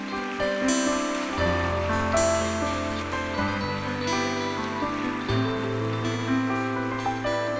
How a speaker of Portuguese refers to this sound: Gostaria de chamá-lo aqui, que você pudesse dar uma salva de palmas.